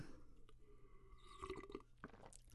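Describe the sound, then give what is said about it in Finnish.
Quiet mouth sounds of someone taking a swig of water between questions, sipping and swallowing, with soft wet gulps and a louder swallow near the end; no one speaks. “Otetaan oikein huikka vettä välissä.”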